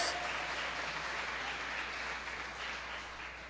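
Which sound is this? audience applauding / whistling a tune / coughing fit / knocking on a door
audience applauding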